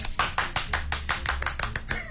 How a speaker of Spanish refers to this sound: Oh, qué bonito, aplauso para ello.